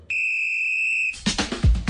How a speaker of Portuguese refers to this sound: Tem apito porque é futebol, mas também é finança.